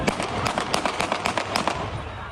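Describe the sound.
Gunshots fired into the air by police to break up an angry crowd during a scuffle over the demolition of illegal buildings in Arabayatağı, Yıldırım, Bursa: a rapid, uneven volley of about ten sharp reports over two seconds, loud above a steady bed of crowd noise and raised voices.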